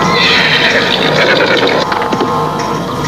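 A horse neighs amid a dense, loud clatter that sounds like galloping hooves as a rider gallops fast toward a group of villagers, the noise steady throughout with sharper thumps toward the end. No one speaks.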